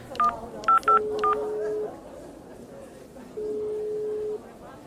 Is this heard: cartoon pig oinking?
no